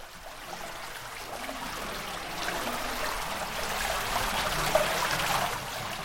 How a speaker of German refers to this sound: dünne Rinnsäle von Wasser laufen auf der linken Seite des 200 Meter langen Weges herunter.